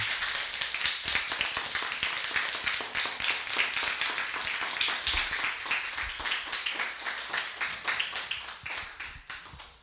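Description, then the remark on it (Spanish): A crowd applauds steadily, many hands clapping in a dense, crackling wash of sharp bright claps that keeps an even pace for several seconds and tapers slightly at the end. “Un saludo a todos los padres que están escuchando en este momento, profesores, estudiantes, y qué les parece si se dan un fuerte aplauso a ustedes por todo lo que hicieron.”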